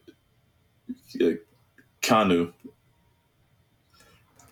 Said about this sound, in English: And uh, bless you. Did you sneeze?